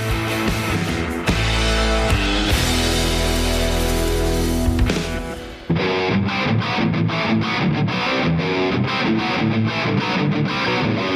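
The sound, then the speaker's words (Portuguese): A loud instrumental intro jingle with heavily distorted, guitar-like tones: a sustained dense wall of sound for the first half, then a choppy, punchy rhythmic pattern. No one speaks. “Bora pra vinheta, vai!”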